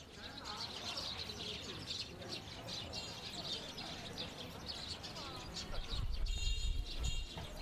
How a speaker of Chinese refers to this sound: 然后我有一次也是在那边，呃好像有一个什么项目吧，在那边录音，然后我就在那边走，然后就听到哇全是鸟叫，然后我就录下来，然后我我后来录下来回回来再听的时候，我就会觉得如果你不如果我自己。就如果我没有去看那个地图的话，我根本就是不会觉得这是发生在城市里的那个声音。